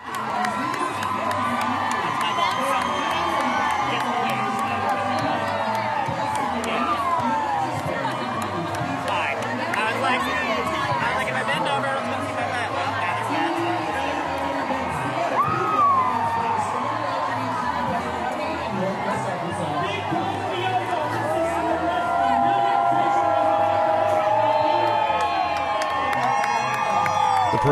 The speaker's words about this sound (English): It was another packed weekend across the region. Thousands of people lined Dixon Street in Fayetteville Saturday afternoon for the annual Pride Parade.